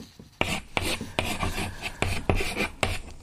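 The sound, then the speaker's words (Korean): Chalk scraping across a blackboard in a quick series of gritty, rasping strokes, each starting with a sharp tap, about seven in roughly three seconds, with no voices. “아, 칠판에 예전에 그 분필로 썼잖아요.”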